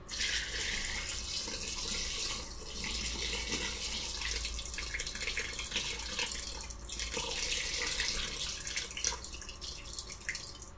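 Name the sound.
water running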